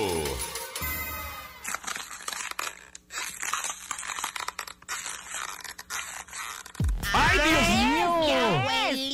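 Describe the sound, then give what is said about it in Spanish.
Brown packing tape being pulled off, played as the mystery sound in a radio guessing contest, in a long, crackling, ripping stretch of about five seconds, uneven and scratchy, after a brief tone, followed by a loud voice. “¡Es cinta canela!”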